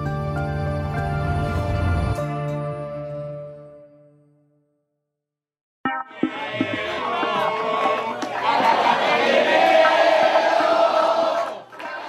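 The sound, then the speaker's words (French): A musical passage fades to silence, then a full hall in a hotel in central Buenos Aires, Argentina, erupts in loud, sustained cheering and applause from a large crowd of supporters of Javier Milei, dense and continuous for several seconds. “Dans un hôtel du centre-ville de Buenos Aires, la salle est pleine et des supporters applaudissent à tout rompre le héros du jour.”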